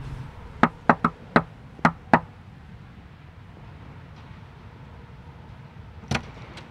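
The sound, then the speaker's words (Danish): Sharp knocking on the door of a man's home to rouse him: a quick run of six raps in uneven pairs, then a long quiet pause before a single louder knock, over a low background rumble with no talking. “Men altså, nu, nu kører vi ud til ham, øh, og så banker vi ham op.”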